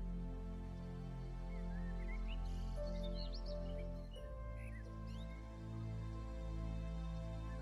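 birdsong chirping

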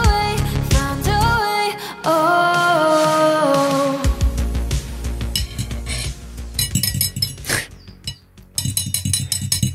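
cutlery clinking on plates

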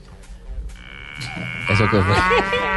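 bull mooing

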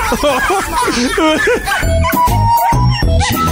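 dog whimpering

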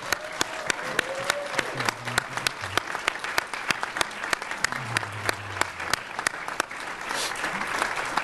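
audience applause

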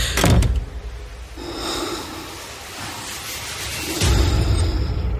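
door being shut

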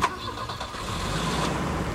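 car engine starting

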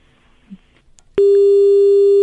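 telephone busy tone

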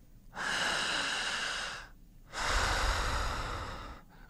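breathing exercise

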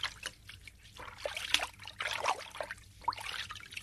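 water trickling

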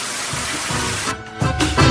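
shower water running

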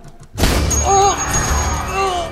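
gunshot

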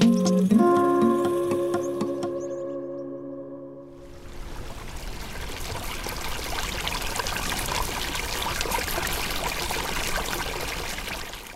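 water pouring and trickling

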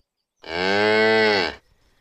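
cow mooing

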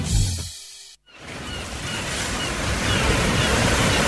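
sea waves

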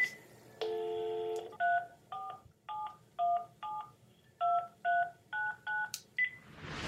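telephone dialing tones

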